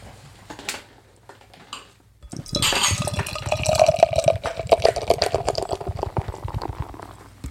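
Beer poured from a can into a glass: a couple of faint clinks, then about five seconds of steady, gurgling, fizzy pouring whose pitch creeps upward as the glass fills.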